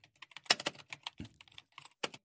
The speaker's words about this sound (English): It's a typing.